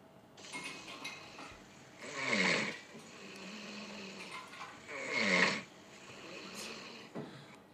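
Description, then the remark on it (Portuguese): A person snores, two loud, raspy snores about three seconds apart, with softer breathing rumbles in between and no talking. “Eu vou gravar ela roncando também. Ela acha que ela não ronca, não, pô.”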